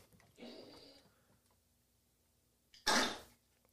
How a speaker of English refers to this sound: That's my dog. If you know, if you if you listen to the show, you know that I have a uh, a twelve year old pug with a collapsed trachea, and when she coughs, it sounds like Satan vomiting in the corner of the room.